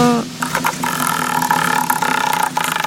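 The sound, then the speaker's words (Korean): A lottery drawing machine whirs steadily, its motor humming while balls rattle and clatter inside in a rapid, continuous churn, spun to draw numbers in a weekly Friday broadcast draw; the first number drawn is 8. No one speaks. “자, 한번, 어, 소리 좋게 한번 돌려볼게요.”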